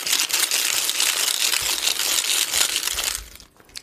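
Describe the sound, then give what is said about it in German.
A money box is rustled: a loud, dense, continuous crinkly rattle lasting about three seconds, then it abruptly stops and goes nearly quiet. “ich habe hier eine Geldbox. Die raschel ich jetzt ein bisschen.”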